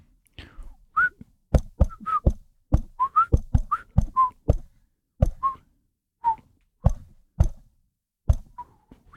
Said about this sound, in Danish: Skal jeg fløjte imens?